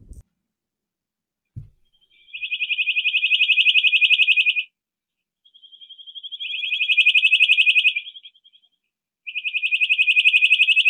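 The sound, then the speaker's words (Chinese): A black-headed nuthatch (黑头䴓), a small bird, gives a high, whistle-like beeping call in three long, loud bursts of rapid notes, each lasting about two seconds with brief pauses between, after two soft low thumps at the start. “黑头狮这种小鸟呢，叫起来的声音非常的好听，啊，哔哔哔哔这样的声音很好听，啊，然后呢？就像是哨子一样，如果它有的时候叫起来很好，那个声音，像哨子一样”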